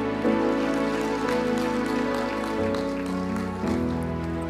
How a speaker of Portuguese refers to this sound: Amém, queridas. Aplauda Jesus, aleluia.